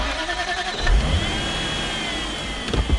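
A car engine cranks and catches, then revs up with a rising mechanical whine and settles into a steady rumble, fairly loud, with no voices over it.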